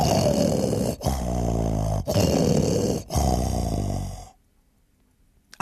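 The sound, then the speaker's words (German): Loud, droning snoring from cats sleeping at night between huge oak barrels of malt beer, rumbling, in four quick snorts about a second apart with brief catches between them, then it stops abruptly and leaves near silence. “In der Nacht, da kriechen sie zwischen die riesigen Eichenfässer, in denen das Malzbier lagert, und sie schnarchen dort, dass es nur so dröhnt, ganz laut.”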